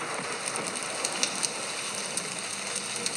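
A fire-and-rainstorm track played from a white noise app: steady, dense rainstorm noise with a constant hiss and scattered sharper drop patters, moderately loud and continuous, with no voices.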